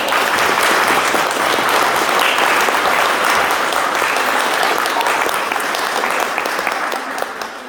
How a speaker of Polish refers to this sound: Wielkie brawa!